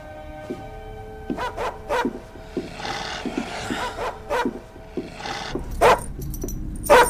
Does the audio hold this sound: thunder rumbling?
no